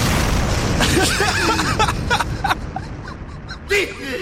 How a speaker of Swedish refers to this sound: Gillar att det avslutas med en fet explosion. Det känns som det linjerar liksom hela hans person.